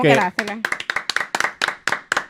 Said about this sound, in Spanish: Es más, vamos a darle un aplauso.